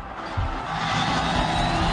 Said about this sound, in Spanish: Esta fue la ovación cuando salió James Rodríguez al terreno de juego, Exactamente, ya con la camiseta roja, la pantaloneta negra del Al Rayyan.